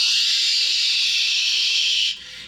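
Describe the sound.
A voice imitates wind blowing through a long, barren, stony mountain valley with one steady, breathy hiss held for about two seconds, fairly loud and even, then cut off abruptly. No words are spoken.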